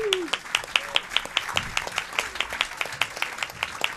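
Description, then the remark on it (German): Audience applause with steady, evenly spaced sharp claps for about four seconds, crisp and moderately loud, with a faint murmur of background noise and no clear speech. “Danke Applaus dir.”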